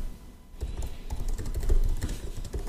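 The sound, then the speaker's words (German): Rapid, irregular clicking of someone typing a coffee review on a computer keyboard, starting after a brief quiet moment and continuing steadily to the end, with no voices. “tippt schon seine, seine Kaffee-Rezension rein.”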